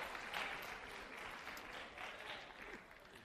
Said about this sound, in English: Let's give our brother a round of applause.